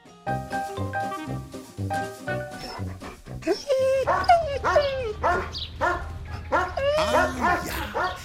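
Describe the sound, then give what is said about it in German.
A crowd of puppies at a puppy play session barks and yips over one another, high-pitched and overlapping, with squeaky cries and short whimpers coming thick and fast as they play. “Welpenspielstunde.”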